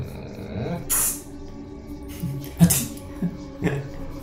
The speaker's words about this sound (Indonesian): yang kayak ini guys lo tau iya. semprotan